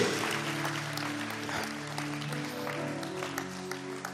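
An audience claps steadily for several seconds, a dense, even patter of many hands, with a soft sustained musical tone humming underneath and no speech.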